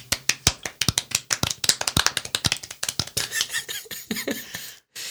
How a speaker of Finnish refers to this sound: ja nyt sä itse asiassa saat golf-taputuksen. No niin, kaikki, golf-taputus.